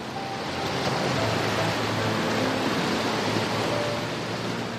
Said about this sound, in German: Ja, so schlagen sie die Wellen bei schlechtem Wetter in Rabatz gegen das Ufer.